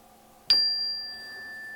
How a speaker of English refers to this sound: So we will. Uh, do our kind of normal breathing that we're doing, and I'll guide you through that. So on the chime, here we go.